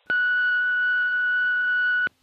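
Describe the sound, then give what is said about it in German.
A single steady electronic beep tone, like an answering machine prompt, holds at one clear pitch for about two seconds with sharp start and stop, loud and alone with no talking. “Na, egal, dann quatscht du nach dem Piepton, wa?”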